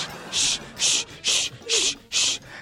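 A handsaw cuts with five steady, evenly spaced rasping strokes, each a bright, gritty burst about a third of a second long, with short pauses between them.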